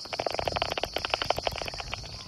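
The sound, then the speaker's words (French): Bat echolocation calls of small flying mammals hunting nocturnal insects in the dark, heard through a bat detector: a fast, steady stream of dry clicks and smacks, about ten per second, over a constant high electronic hiss, moderately loud. “avec un appareil spécial, un bat détecteur on peut entendre toutes les fréquences”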